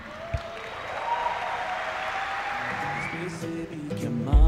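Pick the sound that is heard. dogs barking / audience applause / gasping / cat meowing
audience applause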